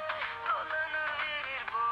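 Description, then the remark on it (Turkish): A phone ringtone plays a bright, steady electronic melody with pulsing repeated notes, moderately quiet and continuous throughout, with no one speaking over it. “Hani açmıyorum. Bu fotoğraf çekmiyor. Orada çalıyor canım.”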